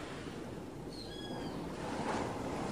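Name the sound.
ocean waves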